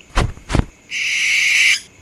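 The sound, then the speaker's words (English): An owl calls: two quick, breathy hoots, then one longer, shrill and steady cry that holds for almost a second before stopping. No one speaks. “Not as sorry as they were as vengeance stuff upon them in the form of a giant owl.”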